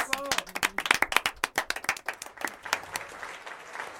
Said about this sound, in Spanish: Un aplauso, por favor, para recibirlas.